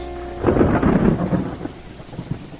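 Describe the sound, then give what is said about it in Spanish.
Steady rain falls while a deep roll of thunder swells in after a moment and slowly fades, leaving a soft wash of rainfall; no one speaks. “Llueve.”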